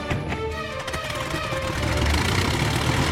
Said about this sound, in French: Un mécanicien tourne l'hélice. La carlingue vibre. Le tas de ferraille roule sur la piste il prend de l'élan, il quitte le sol, ça y est, il décolle